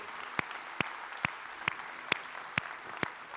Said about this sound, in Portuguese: Quem pode dar um grande aplauso ao Senhor Jesus nessa manhã?